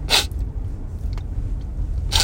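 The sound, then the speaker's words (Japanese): A voice imitates the sniffling of someone crying during a film, with two short, breathy sniffs, one at the start and one near the end, separated by a quiet pause over low background hum. “だもうなんか、ちょっと話すする音とか聞こえてくる。”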